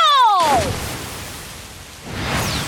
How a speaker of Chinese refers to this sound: 大片大片的水蒸气喷雾向着乌云大王飘去。